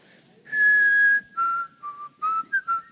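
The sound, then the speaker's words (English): Someone whistles the bright, bouncy melody of a popular song: one long held note, then a run of short, quick notes in a lilting rhythm, with no voices. “Remember the guy just whistled through the whole thing and made like a billion dollars by whistling, right?”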